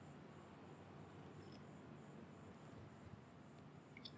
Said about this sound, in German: Man hört hier bis in die Straßen und irgendwelche Grillen zirpen. Aber es ist gerade so abends um die Uhrzeit einfach mal extrem angenehm vom Klima.